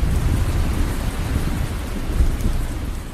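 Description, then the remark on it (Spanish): Steady rain pours down in a continuous, dense hiss, with a heavy low rumble underneath like thunder. No voices, just the constant wash of the downpour. “Durmiendo al raso bajo la lluvia.”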